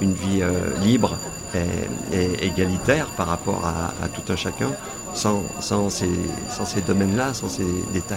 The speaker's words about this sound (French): Désolé pour cette bruit de sonnerie qui nous rappelle à l'ordre qu'il va falloir aller à la prochaine conférence.